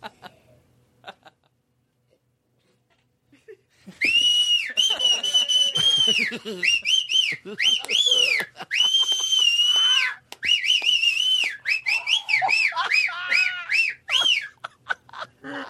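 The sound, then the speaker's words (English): After a few seconds of near silence, a person whistles loudly: shrill, sustained notes that swoop up and down in pitch, with brief breaths between phrases. “and somebody going, "Hey, that whistle's too loud."”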